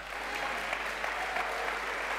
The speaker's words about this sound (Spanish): Vamos, si crees, aplauda fuerte ahí al Dios.